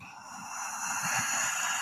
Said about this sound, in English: So, so what that is, guys, if if you've not heard of this, UJ, UJ, UJAAY it's uh you, you breathe in only through the nose really slowly almost like you're about to snore like